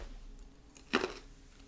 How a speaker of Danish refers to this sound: Det var den mandel. Den, men i det mindste er den ikke kogt. Det er ikke, Nej, den er ikke kogt. Den, er, den, er knæ, den knaser. Den smager godt.